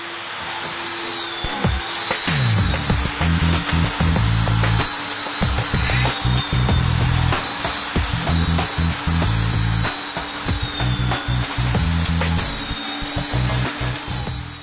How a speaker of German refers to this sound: Über Kopfarbeiten mit der schweren Schleifmaschine samt Staubsauger. Hier sind Muskeln gefragt.